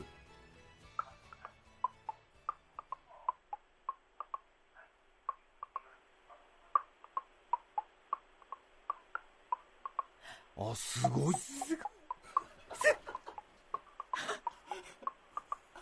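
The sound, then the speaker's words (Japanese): A person in their forties clicks their teeth to play the theme of the radio show Nichiyo Tengoku: crisp tooth clicks tap out a quick melody, each click carrying a distinct pitch in a steady rhythm. Excited voices then break in while a few final clicks continue. “40代の歯楽器”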